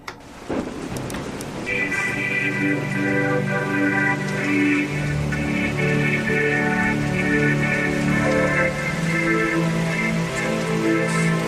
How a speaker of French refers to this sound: On entend d'ailleurs la pluie